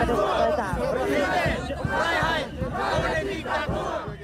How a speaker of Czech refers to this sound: A zdá se, že právě tady jsou dnes ty protesty nejsilnější. Uh, te, přicházejí sem davy z celé Vídně, v těch protestů je několik